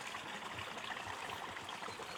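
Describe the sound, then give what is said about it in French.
A small stream and little waterfall rush steadily beside a path through a plain, forest and fields in fine weather, a continuous bright hiss of flowing water with gentle bubbling underneath and no voices. “Je me trouve actuellement en pleine plaine, sur le chemin, la forêt, les champs, le beau temps, un ruisseau, une cascade.”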